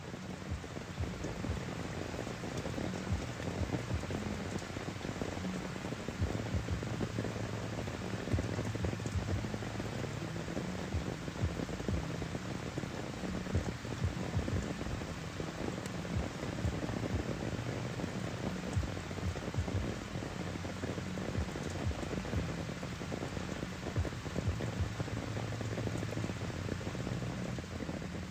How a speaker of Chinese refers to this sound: 那就是可以听听看那个雨水打在帐篷上面的声音。我自己是觉得不会到吵啦，但是对于有些比较浅眠的人，可能真的是蛮困扰的。